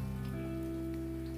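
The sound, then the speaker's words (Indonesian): Steady rain falls outside on 8 December 2021, neither very heavy nor very light, a continuous, moderate patter with no pauses over a low, constant hum. No one speaks. “Kebetulan di luar lagi hujan Nggak terlalu deras Juga nggak terlalu ringan”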